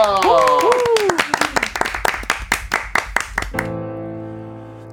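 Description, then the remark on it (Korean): An audience breaks into brisk, loud applause to choose the next song, with a few rising whoops and cheers over the clapping. It stops after about three and a half seconds as sustained musical tones begin. “그날 박수로 정해드리겠습니다”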